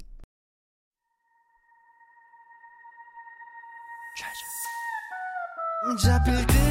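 A pop song intro begins after a brief silence: steady high synth tones swell gradually louder, then a full, loud beat with heavy bass bursts in near the end. No voices.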